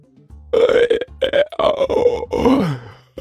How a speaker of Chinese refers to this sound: 干球张嘴打了个大大的哈欠。